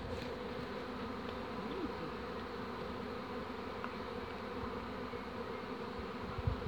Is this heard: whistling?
no